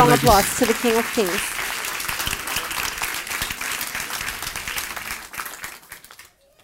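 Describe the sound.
A large crowd applauds loudly for the King (God) during a sermon, dense clapping with a few voices shouting over it at first, then the applause gradually thins and fades out.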